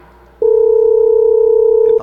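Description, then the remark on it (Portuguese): A telephone dial tone, heard as a call is being placed again, starts abruptly after a short quiet lead-in and holds as a loud, steady, unbroken hum for over a second and a half, with no talking over it. “Peraí, vou ligar de novo aqui, vou ligar de novo aqui, rapaz.”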